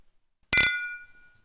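glasses clinking

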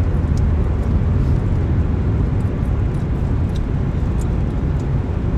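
car driving in traffic

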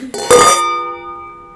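glasses clinking

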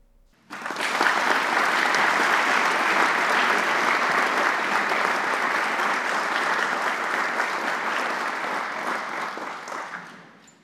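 applause sound effect

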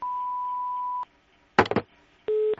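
answering machine beep

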